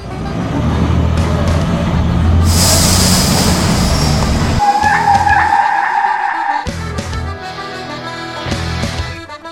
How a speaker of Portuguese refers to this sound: A porcaria do ônibus já tá aqui, ó!